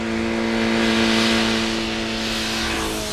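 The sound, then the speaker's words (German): A motorcycle engine hums steadily with a droning, revving tone, holding fairly loud before easing off slightly as it drives away toward town. No one speaks. “fuhr Sam gerade auf einem Motorrad in Richtung Stadt davon”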